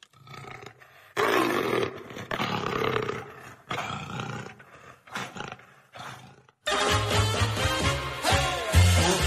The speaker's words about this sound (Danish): oh, der er en leopard.